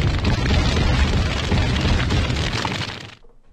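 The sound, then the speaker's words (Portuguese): A bomb explosion: a loud, rumbling blast that roars steadily for about three seconds with crackling debris, then quickly fades away. No one speaks. “o que o Lula está dizendo é o seguinte: solta Moab, fogo no motor, Moab, Moab.”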